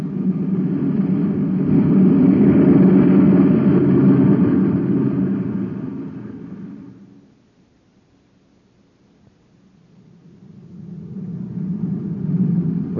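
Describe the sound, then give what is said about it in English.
A surface car's engine drones as it drives toward a crowd in town, a deep steady rumble that swells loud, fades to near silence midway, then rises again toward the end. No voices. “We can't get through the crowd with this surface car.”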